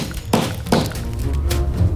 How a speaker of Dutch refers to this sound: geklop dat u hoort, dat ben ik. U ziet dit niet, maar ik heb een charmante plastic veiligheidsbril op... en ik sla als een bezetene met een hamer op een groen potlood.